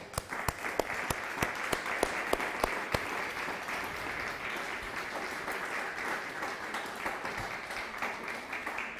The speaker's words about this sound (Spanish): Dale un fuerte aplauso al Eterno.